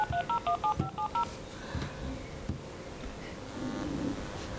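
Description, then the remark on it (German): A quick run of about seven bright dual-tone beeps from a smartphone keypad as a woman dials, clear, followed by a few seconds of soft rustling noise. “greift nach ihrem Smartphone.”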